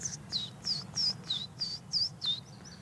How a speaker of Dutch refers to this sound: Dus die Vitus weer. En je hoort eh, Winterkoninkje achter ons, je hoort Zwartkop zingen.